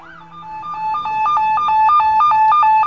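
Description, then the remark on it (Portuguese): A police car siren wails in a steady two-tone pattern, rapidly alternating between a high and a slightly lower pitch, growing louder as it arrives, with no voices. “Chega um carro de polícia.”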